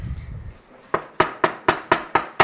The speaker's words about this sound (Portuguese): Foram na porta da casa do Ravitz Chaim, Rav Israel Meir Kagan, a Cohen, bateram na porta dele.